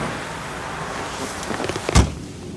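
Someone climbs into a car amid shuffling movement, then a car door shuts with a single solid thud, all over a steady hiss of outdoor background noise.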